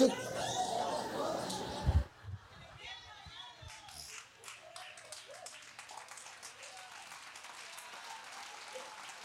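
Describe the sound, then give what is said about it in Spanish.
A church audience bursts into loud, dense applause after being scolded by the preacher during a sermon. The applause breaks off after two seconds, leaving scattered, uneven claps and murmuring voices that continue to the end. “Ustedes son la única iglesia que uno lo regaña y aplauden.”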